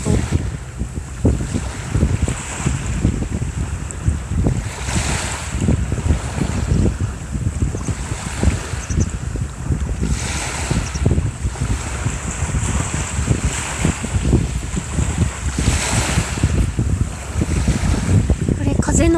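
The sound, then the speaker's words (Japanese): Ocean waves wash steadily onto the shore, a continuous low rumble with periodic swells and some wind buffeting the microphone, with no voices. “ちょっとしばらく波の音”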